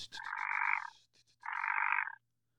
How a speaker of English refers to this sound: sounds like a frog. What is that?